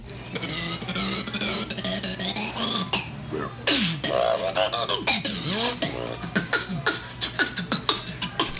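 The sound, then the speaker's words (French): Squeaky, whistling pitch slides from a straw being pulled through a soda cup lid, woven into a steady beatbox rhythm of sharp, clicking percussive hits, with no talking. “fait du beatbox avec une taille qu'il fait coulisser dans son gobelet de soda.”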